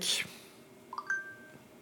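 A mobile phone beeps faintly: two quick electronic chirps followed by a slightly longer steady tone, quiet, after a brief breathy hiss at the start.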